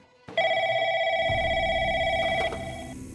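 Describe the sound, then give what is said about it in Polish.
A telephone rings with an incoming call from New Orleans, a steady, bright electronic tone holding for about two seconds before stopping, with faint low rumbling in the background. “Trzy tygodnie później ponownie odebrał telefon z Nowego Orleanu.”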